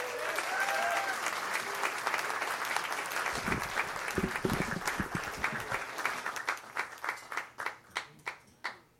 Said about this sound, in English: Big round of applause